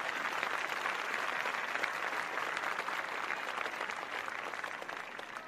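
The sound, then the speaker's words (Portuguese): A steady burst of applause welcoming a guest on a radio show in the Smoke Room, dense overlapping claps forming a bright, continuous wash that holds at a fairly even level for several seconds before easing slightly at the end. “Diretamente da Smoke Room, do ponto mais alto de Ecobic, eu estou aqui com vocês hoje trazendo uma, o nosso mais novo e ilustre convidado, o senhor Puffy. Aplausos!”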